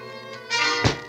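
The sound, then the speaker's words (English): A single dull, heavy thunk of a blow behind a man's ear as he opens his cabin door lands sudden near the end, over a steady tonal musical background. “Oh, oh, oh, I got it. Right behind the ear, as usual.”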